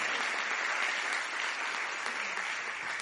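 A crowd claps steadily for a few seconds, a dense, even wash of many hands at a constant level with no voices standing out.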